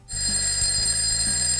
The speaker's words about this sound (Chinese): 熟悉的闹钟声响起，明天哼哼猪一定不会迟到了。